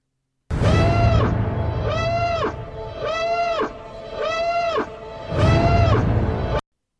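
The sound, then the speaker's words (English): A loud siren sound effect, used as a spoiler alert, wails in about five rising-and-falling cycles over a low rumbling background, filling several seconds with no voices. “So now we're in spoilers. Spoilers. The siren went off.”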